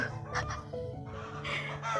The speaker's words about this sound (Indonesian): kan apa gue bilang ada suara ayam juga kan pokoknya serba banyak suara dah di di ini wah di apa namanya di rumah gue mah banyak suara-suara yang tidak enak didengar